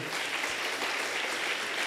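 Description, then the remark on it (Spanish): A church audience in Ciudad Miguel Alemán, Tamaulipas, applauds the Lord together, a dense, steady wash of many hands clapping at once, sustained and fairly loud throughout with no voices standing out. “¿Por qué no le da fuerte el aplauso al Señor?”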